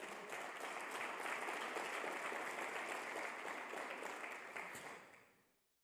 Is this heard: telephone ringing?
no